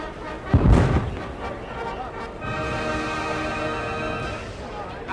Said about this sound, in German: Und da höre ich von draußen schon den ersten Böllerschuss.